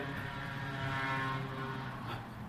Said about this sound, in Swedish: Ja, det var någon moped eller någonting som körde förbi. Här. Moped Det lät ju för fan som en sån drönare.